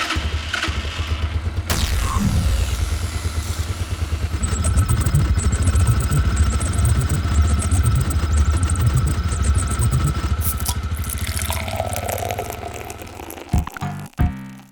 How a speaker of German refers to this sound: So, dann schmeißen wir das Moped doch direkt mal an. Hauen mal an. Und zack.